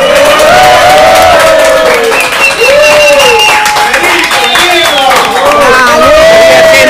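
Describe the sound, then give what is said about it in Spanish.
A studio audience shouts and cheers loudly and continuously as it is welcomed, many voices overlapping in high whoops and yells, with a steady wash of noise underneath that never lets up. “y para que ustedes sepan, para que ustedes sepan que hay invitados, vamos a, darle la bienvenida a todo el público. Que grite un poquito.”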